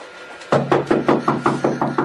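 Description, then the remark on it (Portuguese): A woman knocks on a door in a rapid series of about eight firm knocks, evenly spaced and insistent, fairly loud after a brief quiet start, with no voices. “É melhor responder ou ela vai acabar derrubando a porta.”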